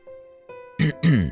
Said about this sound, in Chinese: 蒋泽旭清了清嗓子，说着：